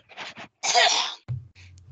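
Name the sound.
cough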